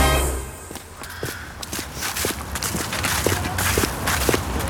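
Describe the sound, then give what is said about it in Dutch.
Steady footsteps walk along an outdoor path toward the Palace on the Water, also called the Palace on the Isle, in Łazienki Park in Warsaw, Poland. A regular crunching rhythm plays over a faint airy background, with no talking. “We lopen nu naar eh, het paleis op het water dat ook wel het paleis op het eiland wordt genoemd...”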